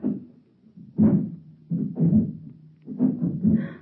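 Heavy booted footsteps of a group of kids approach through the front door of a house with a series of deep, muffled thuds in a loose, uneven rhythm, each one landing with a low boom and growing slightly louder. No one speaks.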